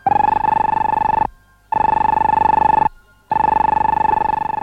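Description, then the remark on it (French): The electric bell of an early radio receiving apparatus with an antenna rings loudly in three long, rattling bursts, each about a second and a half, separated by short pauses, with a harsh metallic buzzing tone and no voices. “s'approcha d'un appareil à l'aspect insolite, doté d'une antenne et d'une sonnerie électrique.”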